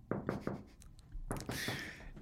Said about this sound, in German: Das ist nur ähm, unser Instinkt. Das klopfen wir da gegen die Wand, so wie, als wären es Bäume, weil wir hinterlassen da mit dem Geweih so Duftnoten.